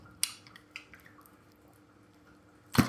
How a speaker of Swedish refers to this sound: Måste dricka lite vatten på den grejen alltså.